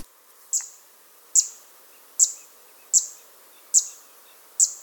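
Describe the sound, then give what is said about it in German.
A small bird, seen on a trip to warm regions such as Turkey, that lives in tall grass or rushy meadows near water with some reeds, repeats a high, sharp chirping note six times at a steady, even pace, each call bright and clipped with brief quiet between, over a faint low background hiss. “nämlich das erste Mal nach der Wende sozusagen in warme Gebiete, zum Beispiel in die Türkei, fahren zu können und dann natürlich auch Vögel zu sehen, die man sonst nie zu sehen bekommt. Und einer davon war dieser kleine hier.”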